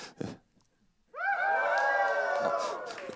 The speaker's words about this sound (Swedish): Därför kan ni jubla, säger han. Kan, få, kan vi testa lite jubelnivån här, bara för att se om vi har någon jubel?